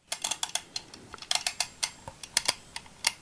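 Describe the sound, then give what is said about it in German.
A mechanical kitchen egg timer is twisted and wound to set it, giving a crisp series of irregular clicks and ticks with no voices. “Und bevor wir jetzt loslegen, muss ich natürlich noch die Eieruhr stellen.”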